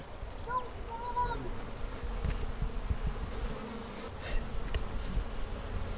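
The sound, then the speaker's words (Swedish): A dense, continuous drone of many honeybees buzzing around a hive, steady, with individual bees whining past now and then over the low hum. “Du, kan vi gå ner och kika på bina? Absolut. Jag skulle gärna vilja spela in lite surr.”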